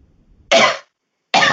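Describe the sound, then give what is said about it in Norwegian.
Two loud coughs, each a short harsh burst, separated by a brief pause of silence, with no talking around them, coughed down toward a desk while trying out a mute button. “albuen ligner på pulten, så jeg hosta ned sånn.”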